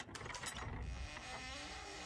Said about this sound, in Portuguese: É, você escuta uma porta se abrindo novamente.